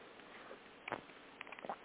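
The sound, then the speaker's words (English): A 1930s imitation English teacup called the Cup of Knowledge, with 52 tiny playing cards inside, is swirled three times with faint rattling, scraping bursts. It is then tapped once, giving one short sharp tap at the very end, before the cup is read. It is quiet, with no talking. “We swirl it three times and tap it once.”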